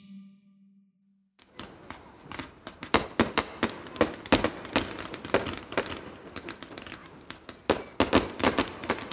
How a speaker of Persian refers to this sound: درست از بعد از ظهر آن روز یک خط در میان ما صدای ترقه و نارنجک ها